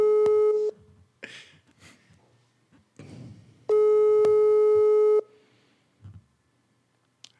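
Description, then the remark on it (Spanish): A loud telephone ringback tone sounds twice, a short burst and then a longer one about three seconds later. Faint rustling and muffled sounds fill the gap, and the call is never answered because the person called is not available. “no está disponible.”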